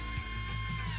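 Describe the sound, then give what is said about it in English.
A small electric pencil sharpener motor grinds steadily, a whirring mechanical buzz with a faint rasping texture, running continuously for about a second with no voices. “It is an electric pencil sharpener.”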